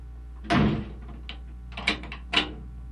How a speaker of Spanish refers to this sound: Anda, Blancanieves, echa el cerrojo a la puerta.